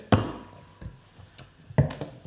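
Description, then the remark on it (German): A bottle of dark beer being opened during a tasting: a few sharp glassy clinks and metallic taps from the cap and opener, with short pauses between and no talking. “Mach auf, komm, mach auf. Ich will, ich will wissen, was da drin steckt.”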